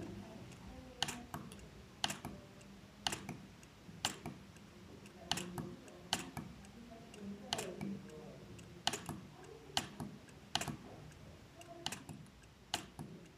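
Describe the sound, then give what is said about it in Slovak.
Soft, crisp mechanical clicks from the refreshable braille display of a braille notetaker as its pins reset while scrolling through an electronic book, repeating about once a second in a steady rhythm. Very quiet and recorded close, with no one talking. “budem sa postupne posúvať v tejto knihe, aby ste počuli zvuk toho riadku”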